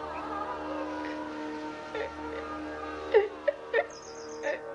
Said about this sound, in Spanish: Casturba consuela a la mujer que llora sobre su hombro.